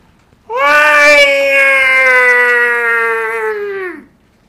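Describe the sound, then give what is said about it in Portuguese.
A person imitates a wailing baby's cry in one long, loud, sustained vocal note lasting several seconds, steady and harmonic-rich, ending with a slight downward drop, with no other sounds. “No choro de bebê, você já tava cantando e, e produzindo metal.”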